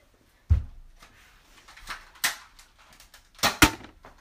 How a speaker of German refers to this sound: Oh, er hat gerade einfach die Zielscheibe getroffen, aber das hat sich nicht umgeknickt.